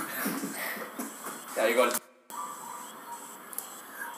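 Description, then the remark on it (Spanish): A chair is shoved and clatters over in a loud scraping crash as governor Ricky Rosselló throws the chair and leaves, followed by an abrupt cut to quieter murmuring voices and faint chuckling. “Bueno, pues no podíamos esperar menos de nuestro queridísimo gobernador eh, Ricky Rosselló nos dejó así tirando la silla y se fue.”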